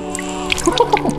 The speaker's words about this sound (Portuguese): No dia do batizado. Agora o padrinho pode jogar água na cabeça do menino.